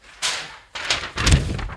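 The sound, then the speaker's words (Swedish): A quick clatter of things accidentally dropped on the floor: three bursts of rustling paper and thudding objects, the last one the heaviest, with no one speaking. “Eh, oj, jag tappade alltihopa.”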